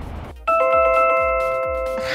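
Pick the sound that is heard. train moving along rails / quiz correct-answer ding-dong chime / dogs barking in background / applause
quiz correct-answer ding-dong chime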